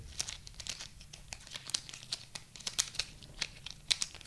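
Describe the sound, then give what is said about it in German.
Pens rub and click against each other, a dense run of quick scratchy taps and crinkly friction that continues steadily for several seconds with no voices. “Ja, wenn ich hier die Stifte nehme und die Stifte so ein bisschen.”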